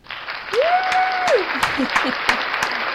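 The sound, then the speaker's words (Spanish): A dense wash of applause runs steadily for about three seconds, with sharper claps punctuating it and a brief sustained vocal cry or whistle rising over the noise near the start. “llevó un aplauso. Un aplauso.”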